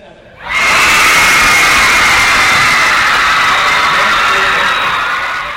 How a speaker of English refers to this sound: As the final results were announced, the home crowd celebrated Baylor's championship in the event.